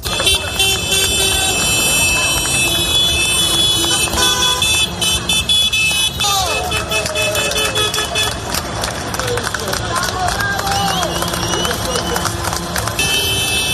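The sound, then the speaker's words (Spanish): More than a thousand tractors of protesting farmers and ranchers rumble steadily into Barcelona amid applause, while many horns honk and blare in overlapping tones throughout, joined by a constant wash of crowd noise. “Así, con este sonido y entre aplausos, entraban en Barcelona.”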